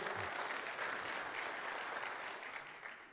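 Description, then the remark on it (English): Many people applauding, a steady, dense wash of many hands clapping at even loudness for about three seconds, tapering slightly at the end, with no voices over it. “Now, this, if one person claps, we all have to.”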